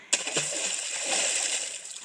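A sharp splash of water hits at the start, then a second smaller plunk follows, with bubbling and trickling water continuing for a couple of seconds.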